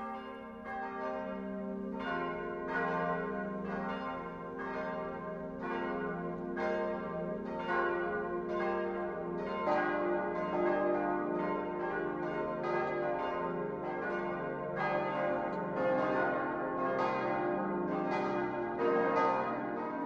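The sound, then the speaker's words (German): Several bells of the Catholic parish church Mariä Himmelfahrt in Vilsbiburg, Lower Bavaria, ring the 12 o'clock midday peal together, loud strikes with rich sustained overtones layering into a continuous droning chime, with no voices. “Das Mittagsläuten kommt heute von der katholischen Pfarrkirche Mariä Himmelfahrt in der niederbayerischen Stadt Vilsbiburg.”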